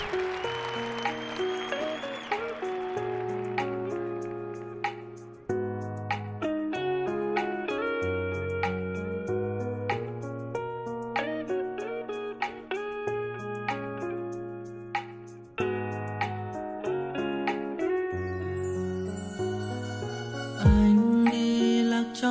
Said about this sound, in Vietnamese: Bây giờ thì mời mọi người lắng nghe một ca khúc nhé.